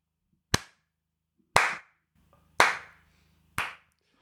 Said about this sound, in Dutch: En boven jullie is Jeff Bezos aan een soort van balkon komen staan aan het, traag aan het klappen.